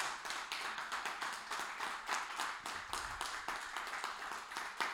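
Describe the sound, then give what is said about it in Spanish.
A crowd, asked to stand and applaud loudly for the King of Glory, applauds steadily for the full five seconds, a dense, crackling wash of many hands clapping at once, with no voices rising above it. “Vamos, póngase de pie y apláudale fuerte al Rey de Gloria.”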